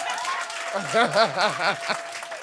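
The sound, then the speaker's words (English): A church audience at a morning service claps together as a clap offering in a steady wash of applause, with a warbling, wavering voice calling out over the clapping midway through. “If you're happy to be in God's presence, give me a clap offering this morning.”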